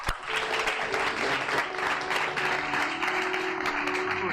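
audience applause

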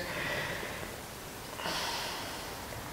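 deep breath taken in

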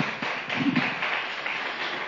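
applause

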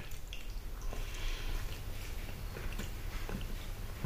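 loud smacking

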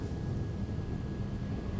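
helicopter flying overhead

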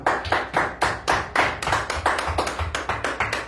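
applause

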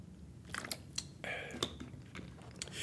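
sipping water

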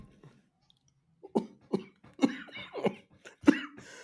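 coughing fit

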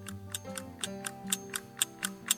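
clock ticking

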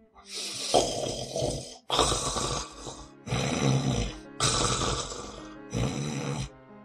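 someone snoring

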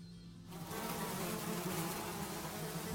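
swarm of flies buzzing

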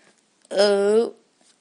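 burp

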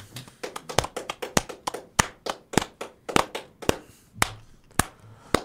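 clapping

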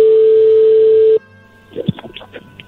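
telephone call connecting

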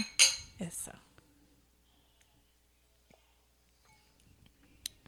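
wine glasses clinking

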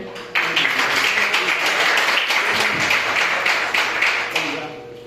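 audience applauding

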